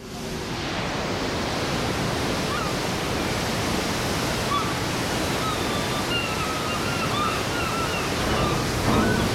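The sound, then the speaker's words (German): Steady roar of water rushing and breaking against the bow of the ship Commandant Charcot as it leaves Longyearbyen, Spitsbergen, in the Arctic, loud and continuous, with faint high calls of a handful of gulls following the ship drifting in over the wash. “Die Wellen brechen sich am Bug, eine Handvoll 13 Möwen folgt dem Schiff.”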